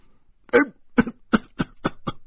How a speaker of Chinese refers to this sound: 医生就咳嗽起来了